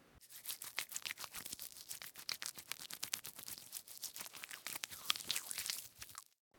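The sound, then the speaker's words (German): Hands being washed under running water: a steady, hissing wash of water mixed with rapid crackly rubbing and splashing, lasting about six seconds before cutting off abruptly. No voices. “Hände waschen.”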